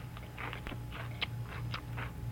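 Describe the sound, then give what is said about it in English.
Crisp crunching of someone chewing an ordinary fortune cookie from a bag, a quick irregular series of about eight dry bites over a low steady hum, with no talking. “Wait till you finish chewing there.”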